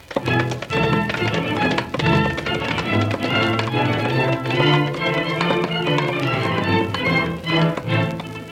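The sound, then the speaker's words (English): The horses of a band of outlaws gallop hard, stirring a cloud of dust, their hoofbeats a fast, steady, thundering rhythm that stays loud throughout, layered over a continuous droning, tonal background. “The thundering hoofs of the outlaws' horses stirred a cloud of dust that thoroughly concealed a little half-breed Indian that had been riding with the men, unnoticed by them.”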